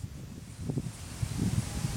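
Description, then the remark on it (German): Low, rumbling gusts of wind buffet a microphone, with soft rustling bursts rising and falling over about two seconds and no voices. “Also ein bisschen Wind kommt.”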